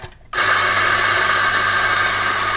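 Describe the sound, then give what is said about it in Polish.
After a brief quiet moment, an espresso machine in a café kicks on abruptly and runs loudly and steadily, a dense mechanical whir and hiss with a constant hum underneath. “Nawet jeżeli wybierzecie kawiarnię, w której nie ma muzyki, albo poprosicie o ściszenie muzyki, to nadal nie jest to najlepsze miejsce dlatego że właściwie w każdej kawiarni macie ekspres do kawy. Posłuchajcie, jak on brzmi.”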